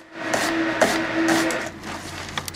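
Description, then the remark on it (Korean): Vegetables being chopped by a chef on a cutting board: a handful of sharp, irregular knife knocks against wood, with a faint steady hum underneath. “채소를 썰고”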